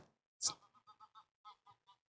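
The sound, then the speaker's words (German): A group of five geese flying overhead honk in a rapid series of short nasal calls after one louder opening honk, the flock calling repeatedly as it passes, fairly faint with no talking. “Es ist eine Gruppe von fünf Gänsen über mich geflogen, das ist auch sehr schön.”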